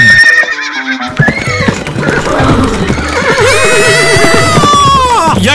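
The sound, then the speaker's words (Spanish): A horse whinnies loudly and repeatedly while hooves clip-clop in a steady rhythm underneath, busy, with a dense layer of other sound filling the background. “¡Auxilio, compadre! ¡El caballo!”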